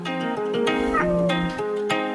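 A cat meows loudly, a series of drawn-out, wavering cries that rise and fall in pitch and run together for about two seconds with no one talking.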